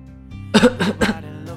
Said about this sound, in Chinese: …咳嗽了一阵，但并不是由于感冒。